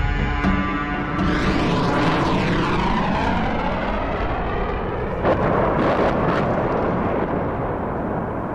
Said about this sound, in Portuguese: Ainda não tinham passado 24 horas sobre o incidente em Ryazan quando aviões militares russos começam a bombardear a cidade de Grozny.